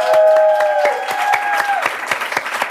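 Applause from a small group for a man being called up to do the outro, a steady patter of claps with individual sharp hits standing out, accompanied by a sustained tonal hum or whistle-like tone that fades after the first two seconds.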